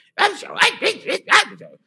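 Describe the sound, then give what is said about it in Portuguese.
A man's voice barks out a quick run of about five gruff, clipped bursts in close succession, imitating in a speech-like way a man who talks as if barking, fairly loud. “ele fala meio latindo assim, né? O Zé Ronaldo faz assim.”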